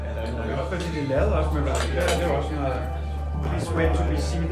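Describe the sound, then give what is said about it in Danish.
Cutlery and dishes clink and clatter against plates throughout an office lunch at an agency at 12 o'clock, with food brought in from outside, people chatting in the background and a steady low hum underneath. “Da klokken slår 12, er der frokost på Pong. Den løber af stablen som de fleste andre byråfrokoster med mad udefra.”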